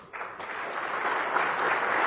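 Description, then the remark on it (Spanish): Sustained audience applause for Mexico City, a dense crackle of many hands clapping that starts abruptly and holds steady and loud for about two seconds, with no voices. “fue un aplausos para la Ciudad de México, ¿verdad?”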